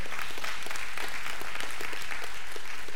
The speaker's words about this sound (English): Everybody give God a hand clap of praise this morning. Amen.